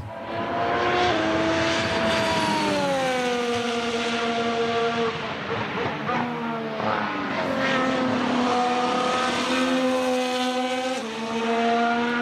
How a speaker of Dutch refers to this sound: Laten we even luisteren naar die Honda-motor.